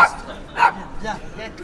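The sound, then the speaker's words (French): A small dog lets out a few short, sharp yips, the loudest coming early, followed by softer whiny barks, with faint voices in the background, inside a chalet in a town centre in the Sarthe, France. “Ah, il y a le petit chien.”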